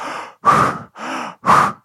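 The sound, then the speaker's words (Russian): A person demonstrates breathing at full amplitude: two quick, deep, forceful inhale-exhale cycles in a steady rhythm, each breath loud and airy with short pauses between. “Но ты можешь дышать в полную амплитуду.”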